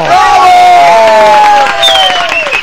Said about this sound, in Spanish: El aplauso, señoras y señores. Ahí está el aplauso de hoy. Para el canito este.